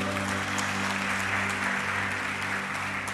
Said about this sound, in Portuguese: Se você está feliz com isso mesmo, dê mais um aplauso ao Senhor Jesus aí.